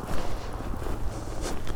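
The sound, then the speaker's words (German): Steady footsteps crunch along a small trodden dirt path across a field at a relaxed walking pace, moderately loud, with a soft rustle of grass and outdoor ambience underneath. “Ich gehe mal hier lang. Hier ist so ein kleines Trampelfältchen, was wahrscheinlich auch nur von Tieren irgendwie genutzt wird, weil ich hier echt auf dem Acker bin.”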